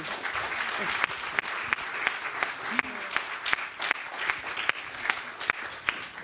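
An audience applauds steadily to welcome a young illustrator, a dense wash of clapping punctuated by sharper individual claps standing out at irregular moments, holding at a fairly even level for the whole stretch.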